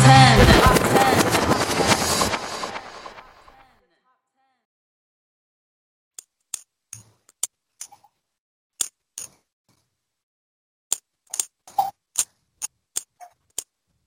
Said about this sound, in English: I can hear you typing. what? I said I could hear you typing.